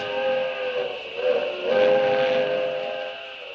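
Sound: steam train whistle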